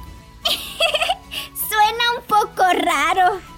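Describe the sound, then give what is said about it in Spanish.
A person talks in a pinched, nasal duck-like voice using the nasal resonators, a string of short quacky, wavering bursts, imitating a yellow duck rather than speaking normally. “Mm, traten de hablar como si fueran un patito.”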